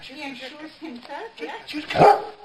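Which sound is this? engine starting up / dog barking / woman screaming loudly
dog barking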